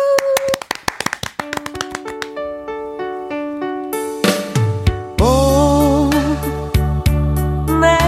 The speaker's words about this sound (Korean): 박수!